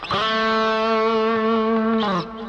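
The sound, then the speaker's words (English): A distorted electric guitar holds one steady, buzzy note for about two seconds, then slides briefly downward in pitch in a slide effect just before cutting off. No one speaks. “I don't want the listener to hear the first part. I just want them to hear the slide effect.”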